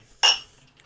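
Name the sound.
glasses clinking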